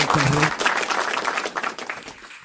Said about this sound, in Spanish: Dale un aplauso, un aplauso